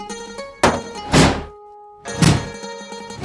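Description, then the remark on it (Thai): Heavy, booming thuds strike in an uneven series of three loud blows as a group pounds on the door at the mouth of a cave until it breaks apart, with a faint steady tone ringing beneath and briefly alone between hits. “เฮงเจียโป้ยกาย ช่วยกันตีประตูปากถ้ำจนกระทั่งหักพังทลายปนละเอียดไปทั้งสิ้น”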